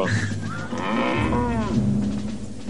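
A herd of cows moos loudly, one long drawn-out bellow sliding in pitch and overlapping with another lowing call, filling the whole moment with no talking.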